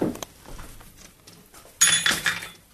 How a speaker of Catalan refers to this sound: Això que acabo de despenjar és el que se n'hi diu un ferrat. Perquè és com el que a Barcelona hi dirien una galleda. Mm -hmm Aquí se li diu un ferrat, perquè estava fet de fusta i estava ferrat amb aquestes arandeles sí. perquè no es desmunté